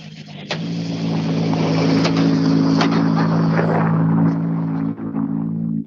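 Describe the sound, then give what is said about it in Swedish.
A rally car engine rumbles low and steady as the car rolls in slowly and calmly, a loud drone with occasional clicks and knocks, then a brief dip near the end. “lugnt och fint tuffar han in här.”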